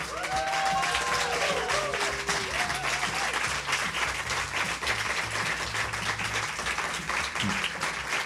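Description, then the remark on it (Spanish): Sustained audience applause for a singer, a dense steady wash of many hands clapping at full volume throughout, with a few brief whoops and voices rising over it near the start. “Aquí se aplaude mucho, ¿eh?”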